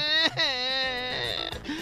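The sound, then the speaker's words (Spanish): An adult voice imitates a child crying, portraying baby Piolín (Tweety) in a joke: a loud, wavering wail held for a couple of seconds, breaking briefly before rising again. No words are spoken. “Está niño Piolín llorando.”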